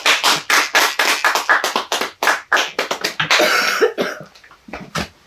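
A dry coughing fit during a live event at the an institute: a rapid string of dry coughs, dozens of short sharp bursts in quick succession, loud and continuous for several seconds before trailing off into a few scattered final coughs.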